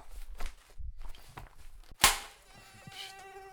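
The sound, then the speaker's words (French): A mosquito's thin, high-pitched whine hovers after a sharp, loud swat with a fly swatter, with soft shuffling footsteps and movement beforehand and no talking. “c'est toi qui décides du jour chasseur de moustiques là”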